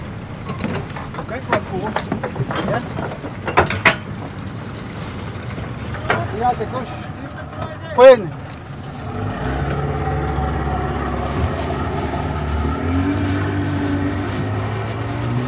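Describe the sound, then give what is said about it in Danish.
A small motorboat engine starts up partway through and settles into a steady, droning hum over the water among large floating icebergs near Ilulissat on a rainy day, preceded by scattered clunks and some indistinct voices. “På en af de sjældne regnværsdage, der sidder jeg i en motorbåd, der i forhold til de store isbjerge, som flyder rundt i vandet, synes umådeligt lille.”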